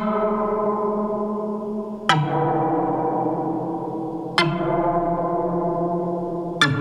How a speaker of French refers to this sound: On appelle ça une réverbe à ressort.